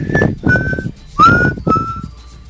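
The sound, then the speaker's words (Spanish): Someone whistles a short, eerie tune from a scary movie, with four sustained notes rising and gliding in turn, one bending upward, over a faint breathy background. “empiezo a chiflar algo. Y este, pues ese puto chiflido que hace”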